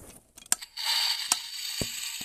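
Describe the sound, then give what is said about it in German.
A green-glowing Creeper-head novelty lamp plays a sound effect: a few sharp clicks, then a sustained hissing crackle with occasional snaps running to the end. No one speaks. “Das ist meine Creeper-Lampe. Äh, meine Creeper-Lampe, die kann sogar Geräusche machen.”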